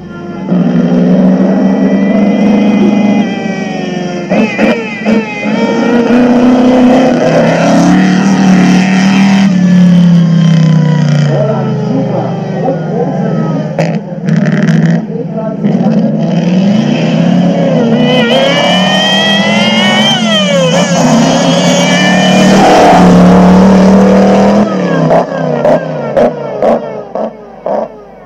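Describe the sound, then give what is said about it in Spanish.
A vintage Mercedes W25 racing car engine with a mechanical compressor roars loudly and continuously, its pitch climbing and dropping through gear changes as it revs and sweeps past, with no voices. “Venga, vamos a ver cómo suena un Mercedes W25.”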